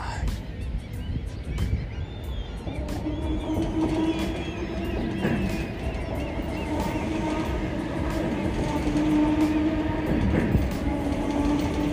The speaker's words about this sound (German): Da kommt noch ein Zug. Interessant. ja. Der Zug ist mega, mega lang. Ui, ui, ui. Nicht mal das Zugende in Sicht.